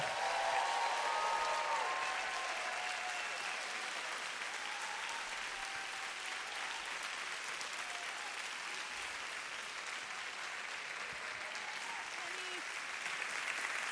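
A large audience at Kensington gives speaker Carolyn Custis James a standing ovation, a dense, even wash of clapping with scattered cheers and whistles rising above it, holding strong without fading.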